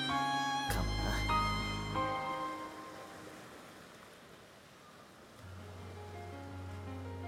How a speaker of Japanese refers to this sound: このヘッドフォンをつけたらいつだって聞こえる何が私の大好きな音この江ノ島の海の音